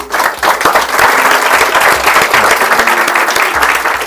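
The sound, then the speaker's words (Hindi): A crowd breaks into sustained applause, a dense, steady wash of many hands clapping that holds strong for several seconds without any talking. “बिल्कुल सही let's give a big hand for it”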